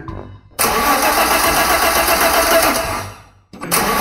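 A car engine cranks loudly, grinding steadily for about three seconds before dying out, then a second attempt kicks in right after a short pause.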